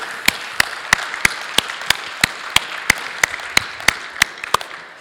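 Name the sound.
audience clapping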